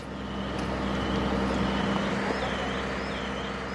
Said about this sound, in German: Das hier sind Sirenen von ukrainischen Löschfahrzeugen und Krankenwagen. Und das ist alles aus einem Video, das unser ARD-Kollege in Kiew, Vassili Golod, auf X gepostet hat. Und was wir hier gerade hören, sind die Rettungsarbeiten der Feuerwehr.